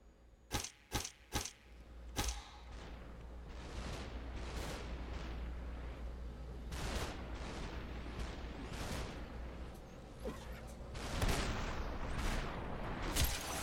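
sound effect, video game gunshots

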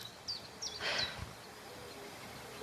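bird, birds singing

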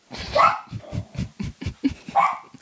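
animal, dog barking and panting

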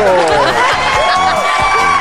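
crowd, audience applause and cheering

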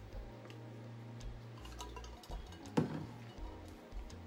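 food or drink, drinking water

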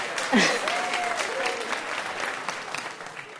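crowd, audience applause

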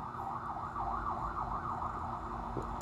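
vehicle, ambulance siren passing by

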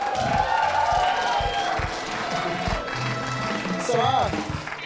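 crowd, audience applause and cheering

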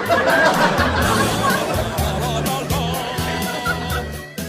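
bird, duck quacking

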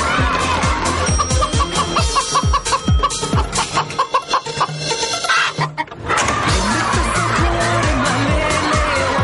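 bird, chicken clucking

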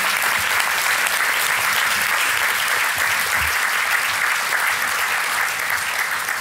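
crowd, audience applause

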